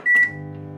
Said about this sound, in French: rester devant un micro-ondes en fonctionnement n'a pas de conséquences pour la santé de l'individu